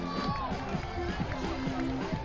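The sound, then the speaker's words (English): A dense, steady roar of the UCSB baseball stadium crowd cheering Blake Clausen's home run that gives the Gauchos a 6-4 lead in the bottom of the eighth inning, loud and continuous with scattered shouts and whistles rising through the din. “Electrifies this crowd and gives the Gauchos the 6 4 lead.”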